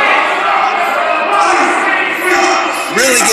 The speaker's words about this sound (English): some hate from this crowd here in Towanda. There he goes. Comes another one. This crowd's not being quiet.